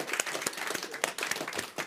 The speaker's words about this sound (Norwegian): Gi han en herlig klapp her.